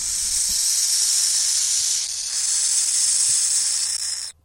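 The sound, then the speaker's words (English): A burrowing owl fledgling, about a month old, gives a loud, continuous rattlesnake-like hiss from inside its den hole as a researcher reaches in to retrieve it, a harsh airy buzz held steadily for about four seconds before cutting off abruptly. No voices are heard. “We know this area is crowded with rattlesnakes, but Belthoff doesn't jump back.”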